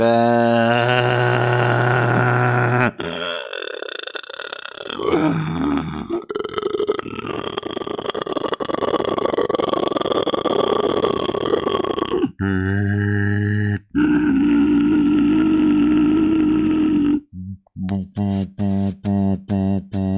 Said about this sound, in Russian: Просто поставь это, это а, нарежь прорык, только прорык мой э, нарежь на полную громкость.